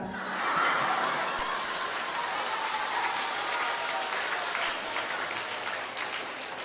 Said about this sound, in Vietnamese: còn người ta không nói được cho người ta vỗ tay